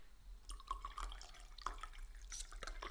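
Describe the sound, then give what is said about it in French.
Tea is poured into a cup in a steady trickling stream, with bright gurgling and splashing that rises slightly in pitch as the cup fills. No one speaks. “est-ce que je me servirais pas un petit thé avant”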